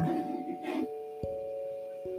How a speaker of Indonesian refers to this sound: jadi itu suara AC ngomong-ngomong bukan suara hujan ya agak agak emang agak agak heboh AC-nya